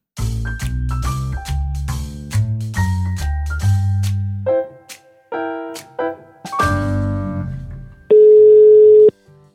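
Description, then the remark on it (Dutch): A short upbeat musical jingle gives way to one loud, steady electronic telephone ringing tone lasting about a second as a phone call is placed, clear with no voices. “Dan gaan we nu echt even bellen”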